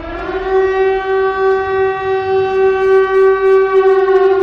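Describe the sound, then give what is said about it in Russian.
An electric civil defense warning siren sounds the 'attention everyone' signal as warning systems run for several minutes across many regions of Russia, a loud, steady, unbroken tone held at a constant pitch throughout, with no voices and no pause. “Прошу вас, не пугайтесь, это сигнал внимания всем. А, запускаются электросирены и громкоговорители, об этом сообщила МЧС во многих регионах Российской Федерации.”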